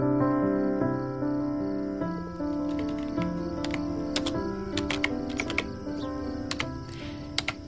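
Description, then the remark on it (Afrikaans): Keys clatter in quick, irregular bursts of typing on a computer keyboard, crisp, starting after a few seconds over a steady, soft tonal background hum or music, as someone writes an email. “Die idee is om vir jou e-posse te stuur na 'n rekening toe en eendag as jy 18 is, dan kan ek vir jou die wagwoord gee sodat jy my briewe kan lees.”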